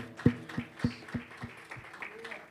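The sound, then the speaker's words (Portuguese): Applause to the Lord at a church service, in a steady rhythmic beat, about seven sharp claps in a row, loud at first then fading, over a soft tonal hum. “Aplauda ao Senhor, querido, se você foi abençoado.”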